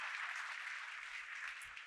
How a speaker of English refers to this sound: Now put your hands together and give the Lord a hand clap of praise. Take your seat.